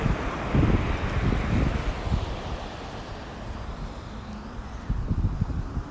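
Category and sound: nature, wind and ocean waves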